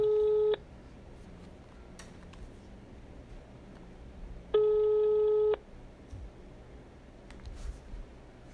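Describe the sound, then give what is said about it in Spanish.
A telephone busy signal after a dropped call: steady electronic tone bursts, one at the start and another a few seconds later, each about a second long, over a faint noisy line hiss. “aquí tuvimos una una pequeña falla telefónica.”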